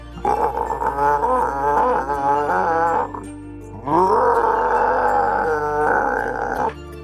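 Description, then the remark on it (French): Two long, loud, bestial growls from a man, each lasting a few seconds with a brief pause between them, the second one rising sharply before settling into a rough, sustained snarl, resounding through an examination room. “Et il grogne, il grogne, et ses grognements sont si forts qu'on les entend résonner dans toute la salle d'examen.”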